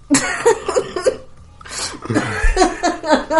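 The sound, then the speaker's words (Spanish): A loud coughing fit from a woman who is ill: rapid clusters of harsh coughs in quick succession, a brief pause, then another burst of repeated hacking coughs with strained breaths between them. “bueno, perdón, perdón por todos los ruidos tosidos, pero bueno, está, está mal como así yo estuve mal hace dos capítulos.”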